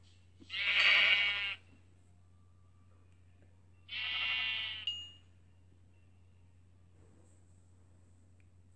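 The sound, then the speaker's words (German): Two bleats from two video game sheep, one around the first second and another a few seconds later, clear over a low steady hum with no talking. “Da vorne sind zwei Schafe.”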